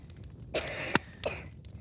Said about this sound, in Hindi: जैसे जैसे आग बढ़ती गई धुआं भी बढ़ता गया और वो खांसने लगी